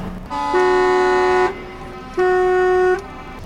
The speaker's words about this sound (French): Euh, par contre, si tu conduis, il faut klaxonner.